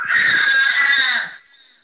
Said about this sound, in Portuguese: Minha turma tá gritando aqui, ó. Eu tô vendo. Eu tô vendo.